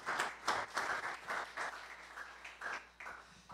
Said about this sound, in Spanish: Démosle un aplauso al Señor Jesús.